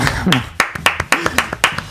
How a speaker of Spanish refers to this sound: aplauden porque no saben lo que resta.